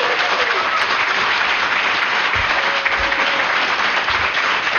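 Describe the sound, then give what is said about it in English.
Sustained audience applause at Dragon Con welcoming author Naomi Novik, a dense, steady wash of many hands clapping at an even loudness for several seconds, with no voices rising above it. “Big round of applause.”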